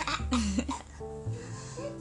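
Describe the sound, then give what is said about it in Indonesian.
A quick run of several harsh coughs from someone who cannot stop coughing in air polluted by smoke, in the first half, followed by a softer sustained tonal sound with no further coughing. “Oh, oh, kenapa aku tak bisa berhenti batuk?”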